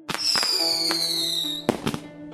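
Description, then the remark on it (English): Fireworks go off in a quick series of sharp bangs and crackles, with a high whistle sliding slowly downward over the booms. The pops are loud, with no voices. “Instead of creating a potion for eternal life, the Chinese stuffed this newfangled chemical mixture into bamboo or paper tubes, creating the first fireworks.”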